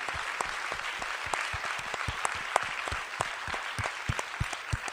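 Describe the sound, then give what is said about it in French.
An audience applauds four speakers steadily for several seconds, a dense patter of many hands clapping at an even, sustained level with sharp individual claps poking through. “On peut vous applaudir.”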